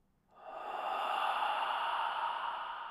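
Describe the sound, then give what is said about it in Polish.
A single long, deep sniff of a small cloth taken from a little pouch, a steady airy inhale that swells quickly and holds for a couple of seconds, with no talking. “Czym prędzej wyciągnął szmatkę z niewielkiej sakiewki i soczyście powąchał ją.”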